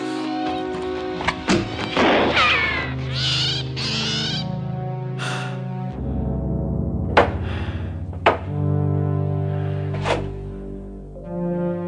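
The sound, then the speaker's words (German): A sharp gunshot crack as a consecrated silver bullet is fired at an owl demon, followed by the creature's shrill, warbling death cries that trail off over a low sustained drone, with a few more hard thuds later on. “Und Schuss.”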